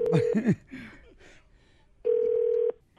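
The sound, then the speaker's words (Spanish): A phone call's ringback tone while calling a mobile phone: a steady electronic burr sounds briefly, then again after a pause of over a second. Faint, muffled voices overlap the first ring. “Estamos llamando”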